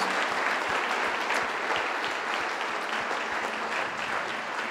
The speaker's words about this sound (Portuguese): Uma salva de palmas novamente.